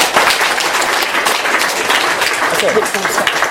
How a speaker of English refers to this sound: So, um, we have a round of applause for Nick Cohen.